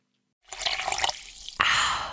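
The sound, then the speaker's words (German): Wet slurping of a sip of water with bubbly liquid texture, then a sudden breathy exhale, like a satisfied sigh after drinking. No talking. “Richtig erfrischend, so ein Schluck Wasser und vor allem gesund.”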